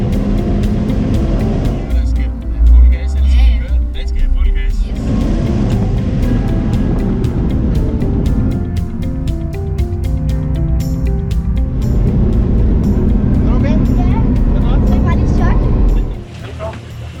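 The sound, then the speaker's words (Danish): Loud, continuous roar of sports car engines racing around the Jyllandsringen track at a sports car event, rising and falling as cars pass, with voices mixed underneath throughout. “Også selv hvis en gammel bil, så kører den vildt hurtigt.”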